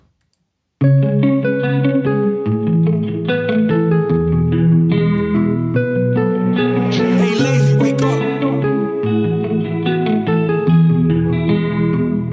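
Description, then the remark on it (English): A music track played during a music break starts after a brief silence and plays steadily and loudly, with rich sustained tones, a full low end and shimmering effects-laden textures. No one talks over it. “So Let's have our uh, second music break here.”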